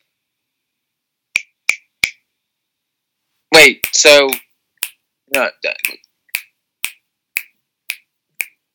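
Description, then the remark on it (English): Crisp finger clicks tap out a steady beat, about a dozen sharp snaps at an even pace, pausing briefly while a person says a few words, then carrying on in rhythm. “Yeah, I'm just I'm just clicking to the beat.”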